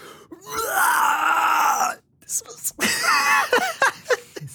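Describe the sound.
A voice imitates the loud retching and vomiting of a small woman, 1.58 m tall: one long, strained, gagging heave, a brief pause, then several shorter choking bursts, forceful.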